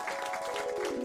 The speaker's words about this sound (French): On l'applaudit bien fort